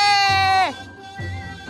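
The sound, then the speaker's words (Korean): A person imitates a cow's moo with a single drawn-out, falling vocal tone, followed by a short stretch of low speech-like murmuring. “음메, 네, 나는 소.”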